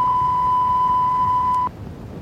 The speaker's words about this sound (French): C'est brouillé, hein Censure, la censure. Oh, la vilaine censure.